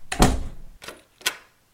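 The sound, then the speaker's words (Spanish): A door thuds shut, followed by two sharp metallic clicks, as a key turns in the lock. No voices, and quiet returns afterward. “Los dos cerditos, muy desesperados, corrieron a gran velocidad y llamaron a la puerta de su hermano mayor, quien les abrió y les hizo pasar, cerrando la puerta con llave.”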